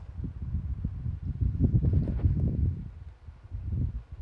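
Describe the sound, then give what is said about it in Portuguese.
Low, rumbling buffeting of air from a fan behind the speaker hitting a microphone, swelling and easing unevenly over a few seconds with no voices. “Esse uh, acho que é do vento aqui atrás, que está é na minha cabeça.”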